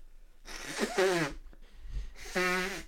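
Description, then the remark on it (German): Two loud, honking nose blows into a tissue, each a rough burst with a buzzing, pitched edge, separated by a short pause with a faint sniff. “Kannst du dich mit dem Handy auch schneuzen?”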